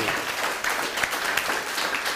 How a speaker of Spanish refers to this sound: A todo nuestro país del ancho y largo. Hasta allá que vaya el aplauso. Vamos México, levántate. Centroamérica, Suramérica, un fuerte aplauso también.